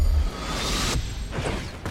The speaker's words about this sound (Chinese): 我们回去喽。 斗转星移，时空穿梭，嗖！